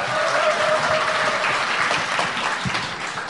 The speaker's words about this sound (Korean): 뜨거운 박수 부탁드리겠습니다